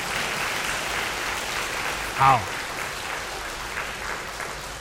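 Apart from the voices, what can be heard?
audience applause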